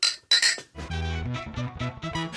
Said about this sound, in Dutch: Ah, zullen, we, eerst even proosten? Ja, inderdaad.